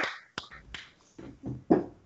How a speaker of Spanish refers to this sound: podemos cerrar el programa con, un aplauso para el gato de Barbe